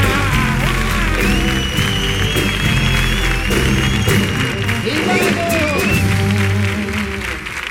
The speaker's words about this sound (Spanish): Fuerte el aplauso para el canijo y el ratón.